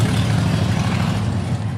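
A Harley-Davidson motorcycle ridden past by a man on 30A in the morning rumbles loudly, a deep, steady throbbing growl that holds for a couple of seconds with no voices.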